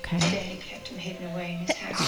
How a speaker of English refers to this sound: Bless you.